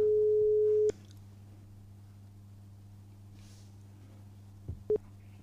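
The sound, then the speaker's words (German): A telephone ringback tone on an outgoing call to Elite Simulation Solutions AG: one steady, mid-pitched beep lasting about a second, then a long quiet pause over a low hum before the next tone briefly begins. “Ah, es läutet.”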